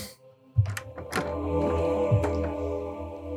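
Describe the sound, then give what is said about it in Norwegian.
A door shuts with a solid low thunk, then a second lighter knock as it settles, over a steady low rumble. “Lukk dør her. Sånn.”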